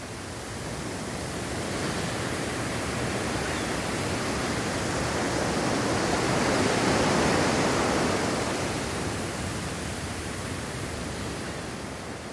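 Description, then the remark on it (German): A steady wash of ocean surf with no voices, a broad hiss of water that slowly swells louder toward the middle and eases back down, like a single wave rolling in and retreating. “Stell dir vor, wie du an deinem Lieblingsplatz am Meer sitzt.”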